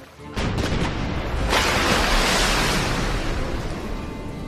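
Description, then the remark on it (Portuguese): Heavy booms of cannon fire from a ship hit the water around a small boat, each impact bursting into a loud, sustained roar of splashing spray that fills the scene and slowly fades. There is no talking. “Tiros de canhão do barco do Klaus vêm na direção de vocês, acertam a água”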